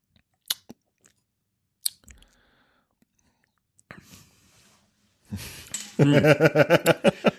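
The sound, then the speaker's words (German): A few sharp, bright clinks of beer glasses in a toast, then quiet sips and swallowing of beer, ending with a loud, pulsing vocal sound. “Lass uns mal trinken, oder? Prost.”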